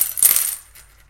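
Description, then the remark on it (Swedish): Metal dice clatter into a metal bowl, a bright ringing jangle of several quick hits that rattles for about half a second before fading into a faint metallic ring. “Det är metalltärningar i en metallskål.”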